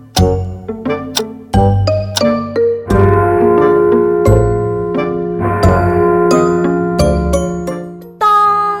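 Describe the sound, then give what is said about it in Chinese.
The big clock at an amusement park rings its bell in a series of bright, resonant strikes, each with a sharp attack and a long ringing tail, the tones overlapping into a sustained chime with no voices present. “当当，钟声响起。”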